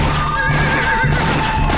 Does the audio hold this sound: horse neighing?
yes